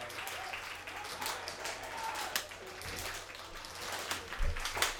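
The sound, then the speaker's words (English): A baseball stadium crowd at a Prune Packers game applauds and cheers steadily for the full stretch, a dense wash of clapping with scattered whistles and shouts rising in bursts over a low rumble. “As the crowd starts to get going.”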